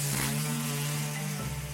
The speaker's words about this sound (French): Si vous entendez un bruit de ponceuse derrière moi, c'est parce que je me trouve dans l'atelier de Louis. C'est une start-up toulousaine qui fabrique du mobilier éco-responsable de bureau